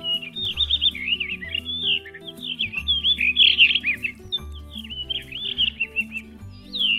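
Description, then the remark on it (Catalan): A blue rock thrush sings a continuous run of flutey, melodious warbled phrases of descending tone, high-pitched and fairly loud, with a low steady humming tone underneath and no talking. “Un seu cant aflautat molt melodiós, de to descendent.”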